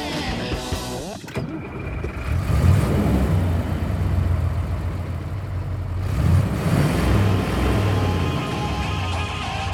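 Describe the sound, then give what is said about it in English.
A truck engine rumbles steadily from inside the cab as the vehicle sets off for Pizza Quest, a loud, continuous low drone that swells slightly as the vehicle gets moving, with a brief clunk near the start. “Let's get in the truck.”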